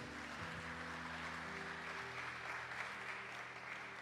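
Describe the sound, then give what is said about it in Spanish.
A church audience applauds steadily as an offering of applause to the Lord, a dense, continuous wash of clapping with no pauses, while low sustained musical tones hum underneath throughout. “Démosle una ofrenda de aplauso al Señor el día de hoy, iglesia.”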